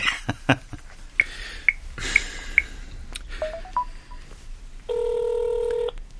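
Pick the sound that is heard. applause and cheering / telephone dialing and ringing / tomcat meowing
telephone dialing and ringing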